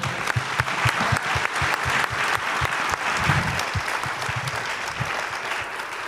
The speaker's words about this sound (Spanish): Gracias chicos. ¿Eh? Damos un aplauso.